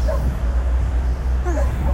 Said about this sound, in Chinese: 你们听到狗狗的叫声了吗？这一片还挺多狗狗的，有我特别喜欢的那个狗狗，有时候会遇到它，真的好大好大一只呀！